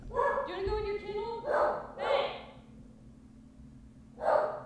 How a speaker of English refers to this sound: That dog never stops. It gets worse. He knows his shot is not on. So he's like, I can bark as much as I want and not yeah. get shocked.